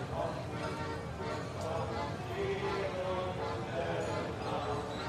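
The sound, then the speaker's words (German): Steady footsteps walk at an even pace over a hard surface at night as the last stalls close, set against a dense, continuous background murmur that lasts the whole time. “Lass uns ein paar Schritte gehen und nachsehen, wer bisher noch keine Nachtruhe gefunden hat.”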